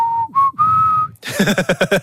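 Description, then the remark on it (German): A person whistles a clear, steady tone that rises slightly in pitch, then breaks into a quick, loud series of about six rhythmic, breathy bursts. “Ist das der Beweis, dass du immer noch pfeifen kannst?”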